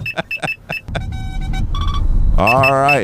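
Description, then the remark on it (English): A radar detector alert goes off: a rapid run of electronic beeps, then a loud warbling chirp that sweeps up and down, over a low engine rumble after a brief spoken phrase. “let somebody else win the prize for the radar detector thing”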